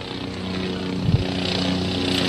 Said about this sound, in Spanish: Eh, el ruido es porque escucharon recién, ahí va el helicóptero, va a McGiver, medio magullado, pero pasó McGiver por acá que vivió en Miami igual que que Johnson.